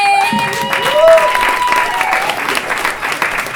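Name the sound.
audience applause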